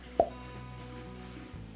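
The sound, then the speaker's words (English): A single short, hollow pop of a cork pulled from a whiskey bottle, fairly loud, followed by a quiet hum with no talking. “I'm telling you, I love to hear the cork pop on a bottle.”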